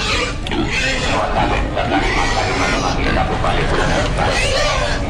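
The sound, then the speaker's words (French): Six tethered pigs in the middle of a road at a village funeral grunt and snort repeatedly, mixed into a steady, loud hubbub of people talking in the background. “Et euh, là au milieu de la route il y a six cochons entravés.”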